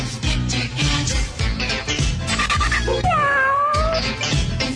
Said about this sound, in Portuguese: Quem será esse? É o, é o nosso gato, skatista, detetive, bugiganga, sempre trazendo as novidades e impressões do subterrâneo musical.